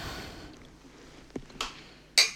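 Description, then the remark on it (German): Glasses clink together in a toast: a couple of soft taps, then one bright, ringing clink near the end, with no talking. “Prost. Prost. Diesmal machen wir es nicht äh, 20 Mal, bis das nein, so richtig gut klingt.”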